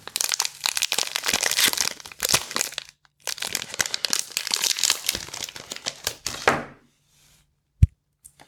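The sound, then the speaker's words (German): A chocolate bar, already a little soft because it is too warm that day, is broken inside its wrapper: about six seconds of dense, crisp foil crinkling with a short pause midway, then quiet and one sharp click near the end. “Man hört es nicht so ganz genau, weil die Schokolade anscheinend schon ein bisschen weich geworden ist.”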